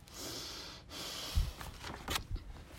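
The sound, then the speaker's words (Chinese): A few short, breathy sniffs through the nose arrive in quick uneven bursts after a soft airy hiss, moderately loud, with no talking. “他吸了吸鼻子。”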